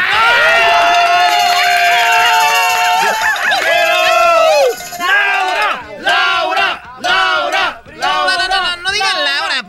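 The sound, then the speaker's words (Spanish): A crowd of voices shouting and cheering loudly, with long sustained yells at first, then breaking into repeated bursts of rising and falling whoops and cries. “siento que están gritando como Laura en América.”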